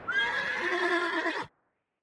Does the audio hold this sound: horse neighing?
yes